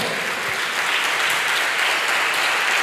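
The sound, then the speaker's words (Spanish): An audience at a church service claps steadily and loudly for the Lord, a dense, continuous wash of many hands applauding together throughout, with no speech over it. “Dele fuerte ese aplauso al Señor.”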